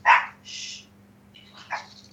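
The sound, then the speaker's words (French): A dog barks a few times: a sharp loud bark, then a shorter yip-like bark, and another bark after a brief pause, with no one talking. “Elle ah, est d'accord avec toi, le chien, visiblement.”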